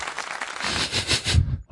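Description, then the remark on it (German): A short burst of applause, dense rapid clapping at a steady loudness for about a second and a half before cutting off abruptly, followed by a brief faint knock. “Applaus, lieber Max, falls du das jetzt hörst.”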